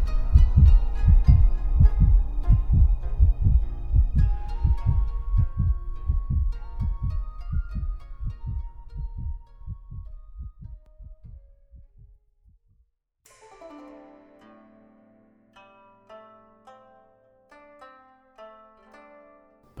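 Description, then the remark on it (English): A loud, pounding heartbeat thuds in a steady, quick rhythm of deep low beats, then drops away, leaving soft, sparse plucked tones ringing on their own. “The steady beat of hoof falls outside the great tent fades into the pounding of his heart.”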